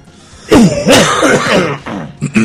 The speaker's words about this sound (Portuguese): É tosse de velho, sabe aquela que. É? Tosse com pigarro, né? Vê um negócio na boca dele e engole de novo.